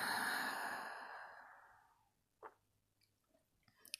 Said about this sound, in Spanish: Inhalando por nariz, exhalando por boca, haciendo una silenciosa. Inhalando por nariz. Exhalando por boca otra silenciosa. Y una vez más, inhalando por nariz, exhalando por boca.